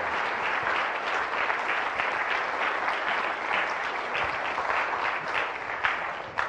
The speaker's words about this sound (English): Thank you guys for coming. Let's give all let's give these men another hand.